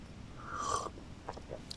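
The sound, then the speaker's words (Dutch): A quiet sip of a drink: a short slurping draw of liquid, then a few soft gulping clicks as it is swallowed. No one talks. “Ik heb hier zelf nog mijn max slokje nemen.”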